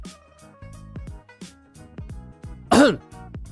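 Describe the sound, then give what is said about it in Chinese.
A single short, loud throat clearing, for the story character Li Mu clearing his throat, bursts out near the end, rising above a soft musical backing of steady tones and repeated low plucked notes. No one speaks. “李牧清了清嗓子，对着天空喊道”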